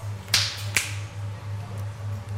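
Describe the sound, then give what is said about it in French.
Two sharp finger snaps in quick succession, bright and crisp, made as body percussion, followed by quiet with a steady low hum underneath throughout. “Et sinon, simplement, le clap des mains, les mains claquées sur le corps, les claquements de doigts”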